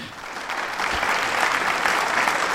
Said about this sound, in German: das meine ich mit Applaus. Applaus.